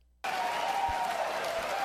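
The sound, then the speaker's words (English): After a brief moment of near silence, an audience suddenly bursts into steady, loud applause with a dense crowd roar that continues evenly through the rest of the moment. “Not as much of the yay cheering.”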